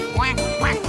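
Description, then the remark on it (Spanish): Frogs on the bank of the Senegal River croaking in two quick, raspy, duck-like bursts, loud, with no talking and a steady background hum between the calls. “hasta la orilla del Senegal para ver a las garzas bailar y escuchar a las ranas cantar.”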